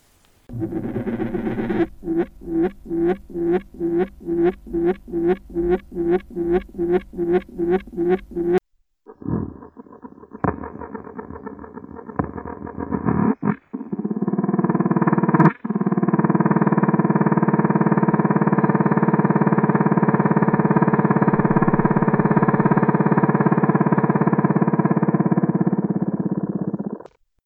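Courtship vibrational songs of leafhoppers wooing their females: first a rapid series of rhythmic buzzing pulses, then scratchy crackling bursts, and finally a long, steady, droning growl, loud with no talking.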